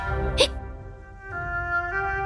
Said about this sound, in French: Une des fées se mit même à avoir le hoquet.